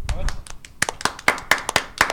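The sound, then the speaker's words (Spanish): Audience applause comes as sharp, steady claps in a quick even rhythm, starting soft and growing louder and crisper, with faint voices murmuring underneath. “Gracias por esos aplausos tan espontáneos.”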